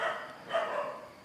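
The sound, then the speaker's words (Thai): A dog barks twice in quick succession, the sharp yelps sounding muffled against a faint background hiss, with no talking; the barking interrupts listeners during a dharma talk. “แม้แต่ขณะนี้เราก็เสวยวิบากอยู่เราอยากจะฟังธรรมะให้สงบให้สบาย มันก็จะมีคลื่นแทรกนะเสียงสุนัขเห่าแทรก”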